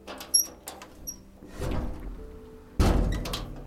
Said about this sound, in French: Au pied de la porte d'entrée violette, j'avais hâte. Et j'allais mettre mes premiers pas dans ma nouvelle vie. Il ouvre la porte.